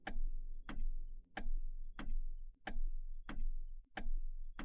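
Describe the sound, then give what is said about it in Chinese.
The turn signal of the car in front ticks steadily, eight sharp clicks evenly spaced about two-thirds of a second apart, each with a low resonant body, with no talking. “哎，你们看，前面那台车的方向灯在闪呢！”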